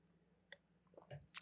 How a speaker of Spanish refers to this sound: Salud, vamos a dar un traguito por esta pregunta.